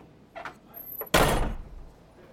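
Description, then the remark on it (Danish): A door creaks and rattles briefly as it swings open, then slams shut with a loud, booming bang that rings out and fades over about a second. No one speaks. “og smækkede sådan.”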